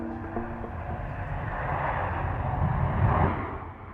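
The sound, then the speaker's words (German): Airport ambience at Munich Airport, Germany, with a steady, low rumbling roar of aircraft engines that swells toward the end, with a faint whine early on and no voices. “Ortstermin am Flughafen München.”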